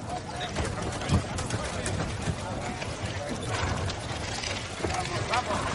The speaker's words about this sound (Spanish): En el patio de Invernalia, varias personas empujan carros de heno.